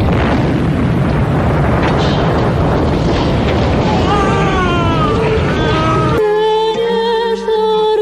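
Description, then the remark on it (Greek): Dense, continuous bursts of anti-aircraft fire and explosions in Pristina, loud and rumbling, with sirens from various areas of the city wailing and rising over them before the sound cuts abruptly to a steady, clear tonal hum. “Ακούγονται αυτή την ώρα οι σιρήνες από διάφορε περιοχέ μέσα στη Βρίστινα και ακούγονται και αντιεροπορικά.”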